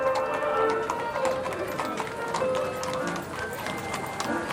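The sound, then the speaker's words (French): Horses neigh outdoors amid a busy, continuous bustle of hooves and movement, with faint voices mixed into the steady background noise. “Dehors, des chevaux hennissent.”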